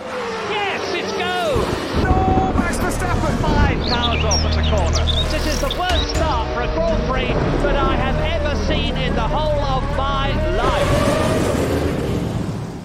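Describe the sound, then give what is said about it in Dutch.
A loud, densely produced rain-and-storm-themed bumper jingle: deep rumbling and whooshing wind-like noise under swooping, voice-like melodic glides, running continuously for about thirteen seconds before cutting off. “ik heb het al eerder gezegd, ooit maakte ik dit bumpertje met het idee van als het gaat regenen, en het gaat stormen, dan is dit bumpertje handig.”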